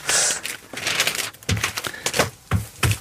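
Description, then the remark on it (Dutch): The pages of a paper newspaper crinkle and rustle in a string of irregular, crackly bursts, some sharp and some drawn out, with no voices over them. “En het geluid van een knisperende krant is toch gewoon lekker.”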